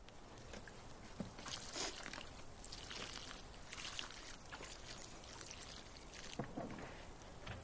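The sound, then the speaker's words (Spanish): Water pours steadily from a jug onto soil, watering a freshly planted plant whose roots have just been covered with earth, a continuous hissing splash with uneven gurgling surges and a couple of sharper spatters, holding roughly the same moderate level throughout with no voices. “Alma lo riega con una garrafa de agua.”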